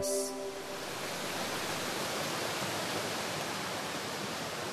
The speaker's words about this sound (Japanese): 聞こえますか滝の音ですで今私がやってきたのは大峰山から流れている三条川えカジカの滝の前にいます